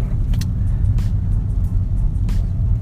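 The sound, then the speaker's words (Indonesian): A steady, heavy low engine rumble from a car moving along the road after dropping someone off, around 5 pm on 19 November 2020, continuous, with a few brief hissing swishes passing over it. “Gua habis gue lagi di jalan habis nganterin seorang yang menurut gue penting banget banget”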